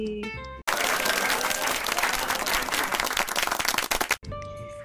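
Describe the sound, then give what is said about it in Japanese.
A sustained burst of steady applause, many hands clapping densely and fairly loudly for about three and a half seconds, with brief tonal music before and after. “パチパチパチ。”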